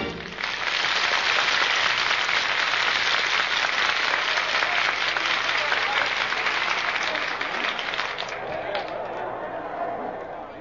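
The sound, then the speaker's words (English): A large crowd cheers and applauds steadily at a baseball park, waiting for the game to start, a dense, continuous roar of clapping and shouting that holds strong for about ten seconds before easing slightly at the end. “look at that crowd. Look at that bloodthirsty mob waiting for us to start.”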